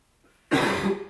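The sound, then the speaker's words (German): One loud cough bursts out suddenly after a brief quiet moment, rough and breathy, tapering off over about half a second. “Du hustest nicht, oder?”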